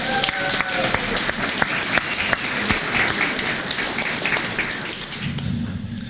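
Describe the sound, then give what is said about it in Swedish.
An audience breaks into applause for the people from Gothenburg, a dense, steady wash of many hands clapping at an even loudness for several seconds, with a few brief voices rising through it near the start. “En applåd från från Göteborg.”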